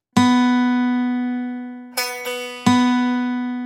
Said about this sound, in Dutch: Sla ik nu diezelfde snaar aan met de klankkast van de gitaar eronder, dan krijg je dit.